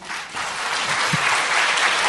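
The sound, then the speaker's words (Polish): An audience applauds steadily, a dense wash of many hands clapping at an even, fairly loud level throughout, with no voices cutting through. “Wielkie brawa.”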